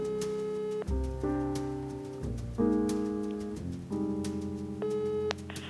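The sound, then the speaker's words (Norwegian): A phone call to a mother's mobile phone rings on unanswered, with sustained electronic tones shifting in pitch every second or so, steady and fairly loud, with no voices. “Hun hørte det ikke. Hun tok iallfall ikke telefonen.”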